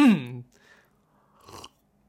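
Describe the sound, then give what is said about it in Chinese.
A man clears his throat: a short voiced grunt with falling pitch, a brief pause, then a rough, raspy burst. No talking. “保持老的习惯，还是先清嗓子。”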